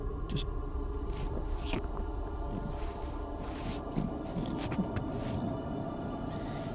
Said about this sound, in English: And then after a little bit, you start to hear in the darkness the sound of crackling fire.